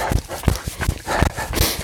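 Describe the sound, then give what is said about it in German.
Dogs pass by on a trail during a run, their quick footfalls making a steady series of soft thumps with scuffling and rustling in between; no one speaks. “Aber nee, lass uns hier runtergehen, da hinten kommen ja gleich die Hunde nochmal.”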